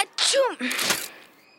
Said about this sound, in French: Il a éternué si fort que tout le monde a sursauté.